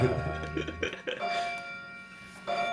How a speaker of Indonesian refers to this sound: aku lupa ngebleng aja lonceng-lonceng yang ada di gereja ini Santo Petrus.